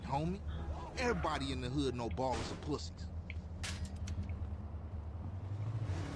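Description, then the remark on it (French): A car's low, steady engine rumble runs throughout as the car is pushed, with voices talking over the first half and a few sharp knocks after they stop. “Wesh, il a poussé ma voiture comme ça, lui.”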